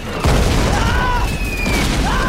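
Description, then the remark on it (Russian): A loud explosion in a wartime trench hits with a deep, rumbling blast wave that rolls on for a couple of seconds, while high whistling tones glide overhead through the roar. “Взрывная волна сбивает спирта с ног.”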